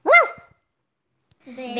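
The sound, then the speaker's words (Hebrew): A puppy gives one sharp, high-pitched bark, followed by a short silence before a voice starts speaking. “והכלבלב, החתול והעכברון אכלו מתחת לשולחן”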